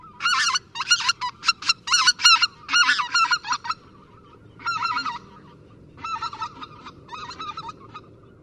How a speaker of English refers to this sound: The voices of greater white fronted geese sound like laughs or yelps.